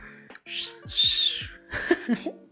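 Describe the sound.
Someone imitates a parrot whistling at a family member going to the bathroom in the morning: two bright swooping whistles, then a quicker chirpy burst of squawk-like notes, fairly loud with no other talking.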